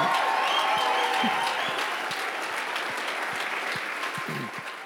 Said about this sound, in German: Ähm, und wir wollen, wir wollen diesen Männern mal ganz kurz einen Applaus geben, oder?